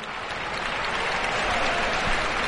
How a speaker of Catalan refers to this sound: El públic aplaudeix. El públic anima.